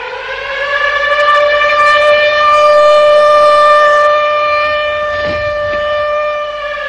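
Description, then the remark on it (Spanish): An air raid siren wails loudly and steadily for several seconds, its rich, buzzing tone holding nearly one pitch with no voices over it. “Hubo incluso apagones por la costa oeste y oriental y también algunas falsas alarmas.”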